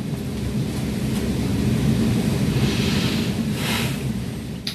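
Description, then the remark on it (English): A thunderstorm roars steadily outside, heavy rain hissing and hammering on a roof over a deep, continuous rumble of thunder that swells slightly midway, loud with no voices; the storm is cascading against a mountain. “The storm is like cascading against the mountain outside, and it is a true storm now.”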